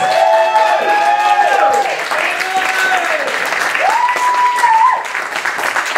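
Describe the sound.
A crowd applauds loudly and steadily for the full six seconds, dense clapping filling the background while a few raised voices call out over it.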